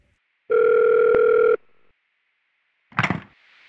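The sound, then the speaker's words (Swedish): A single steady electronic telephone tone rings out loudly for about a second as a caller rings in, followed after a pause by a brief clunky burst of noise like a line connecting. “du ringer in vid ett utmärkt tillfälle.”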